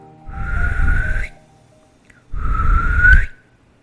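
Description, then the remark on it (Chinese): Two loud, rising whistles, each lasting about a second with a short pause between them, a man calling his horse out of a stable; a breathy low rush accompanies each note. “他又吹了一声口哨”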